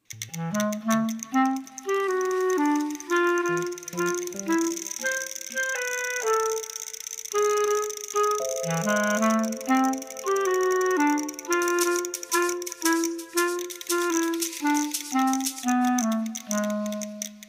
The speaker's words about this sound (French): Bien, on va enchaîner avec une petite pause euh, musicale sur un changement de matériel.